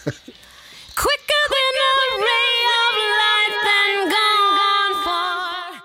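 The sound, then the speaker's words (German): A singer's buzzing lip trill, a lip-loosening voice exercise used as an effect in a song: a sustained fluttering voiced tone that holds a steady pitch with small dips, fairly loud for about five seconds after a brief breathy start. “Sie benutzt zum Beispiel so Stimmübungssachen wie brrr, brrr, also so Lippen, ähm, Lockerungsübung, mhm.”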